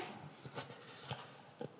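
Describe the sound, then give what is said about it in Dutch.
Soft paper rustling as pages of a booklet of organic paper are leafed through, with a few brief crinkly flicks spread over a couple of seconds against a quiet background. “Misschien hoor je papier, het mooie papier, biologisch papier.”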